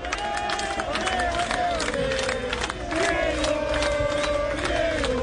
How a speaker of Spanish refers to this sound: La ambulancia sigue sin salir de La Plata y de fondo los hinchas de gimnasia que gritan por Maradona.